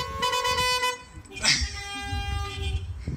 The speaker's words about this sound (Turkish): Arkadaşları da onlara otomobillerinin içinden tempo tuttu, korna çalarak müziğe eşlik ettiler.